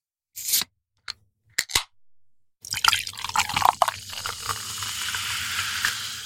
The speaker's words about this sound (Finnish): Meillä on tänään maistelussa somerspyyn kesäuutuus Apple Light, eli eiköhän kaadeta tästä vähän lasiin. Anna palaa.